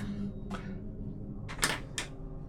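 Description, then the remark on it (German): A cabinet door, unlocked by a thumbprint scanner, is opened: a soft click, then a couple of sharper knocks and rattles of the latch and door, with no one speaking. “Du machst die Tür auf, du siehst mehrere Flight Overalls, äh, zwei Paar Stiefel, verschiedene persönliche Dinge von einer Uhr über, ähm, über äh, du hast da so einen Stapel grüne Knicklichter drinnen liegen, du hast ein, äh, ein äh, mehrere Bücher.”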